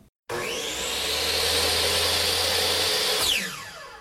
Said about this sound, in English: a circular saw in the woodshop